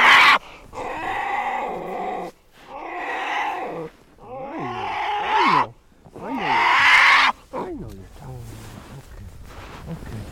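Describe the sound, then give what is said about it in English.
A female polar bear cub, whose mother is immobilized for data collection, bawls in a series of loud, harsh cries, each lasting a second or two with wavering, rising and falling pitch, separated by short pauses and softer grumbling. “And her sister is okay. making a lot of noise.”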